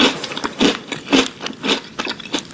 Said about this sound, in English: I found them eating a couple different kinds of cereal. It's a very easy game. okay. You just tell me what kind of cereal you're oh. hearing being eaten right now.